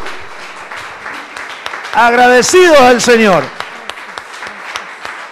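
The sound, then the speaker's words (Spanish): An audience applauds the Lord in gratitude in a steady, dense wash of clapping that runs throughout, while a man's voice speaks loudly over it for a couple of seconds midway. “Denle un aplauso al Señor. Bien fuerte de gratitud.”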